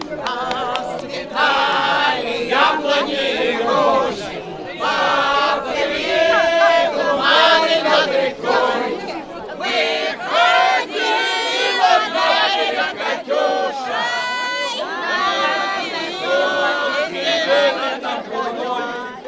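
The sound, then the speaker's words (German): A large crowd sings wartime songs together loudly in the courtyard of the Communist Party headquarters during an opening ceremony, many voices in unison carrying a marching, anthem-like melody with strong rhythmic phrasing and a reverberant, open-air feel. “Im Innenhof der Kommunistischen Parteizentrale werden mittlerweile Lieder aus Kriegszeiten angestimmt.”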